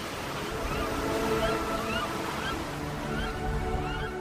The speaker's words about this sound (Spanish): Pato Real